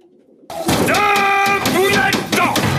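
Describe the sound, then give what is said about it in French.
Loud homing pigeons cooing in a busy dovecote, with several overlapping calls and soft flutters and thumps of wings and feet, no talking. “littéralement passionnés par les pigeons voyageurs”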